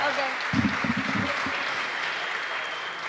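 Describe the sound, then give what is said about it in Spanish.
Steady audience applause, a dense wash of many hands clapping at moderate loudness for about three seconds, with a few stronger claps and murmuring voices in the first second. “así que aplaudan todos para que eh, haga play.”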